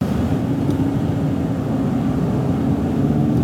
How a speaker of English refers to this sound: How about car interior? And like, I can't imagine anything more boring than let's let's record what happens inside of someone's car. They're not talking. They're not doing anything. It's just the interior of a car.